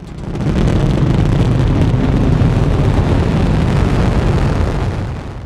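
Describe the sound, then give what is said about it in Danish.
A continuous, heavy roar of a crewed rocket launch headed for the Moon, deep rumbling low end with broad hiss above, holding steady and loud for several seconds before easing slightly at the end. No voices. “Hele cockpittet vibrerer, og nogle af rumskibets samlinger knirker på grund af det enorme tryk fra raketten.”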